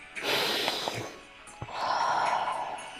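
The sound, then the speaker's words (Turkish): A slow breath drawn in through the nose, followed by a long, airy exhale out through the mouth, with no talking. “Burundan nefes alıyorum. Ağızdan nefes veriyorum.”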